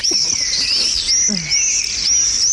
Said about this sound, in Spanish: Es ese silbido, ¿eh? muy irritante. Es insoportable. Este es el vencejo, inequívocamente.